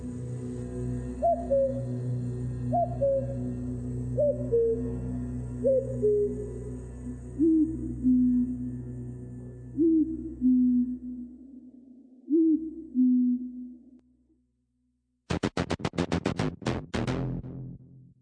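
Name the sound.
cuckoo call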